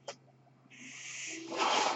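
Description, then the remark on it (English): A person's mechanical ventilator cycles: a soft click, then a steady airy hiss that swells into a louder rush of air near the end. Fairly quiet, with no one talking. “That noise you hear is my ventilator.”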